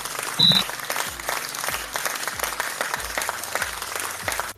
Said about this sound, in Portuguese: Uma salva de palmas por essa filosofia maravilhosa.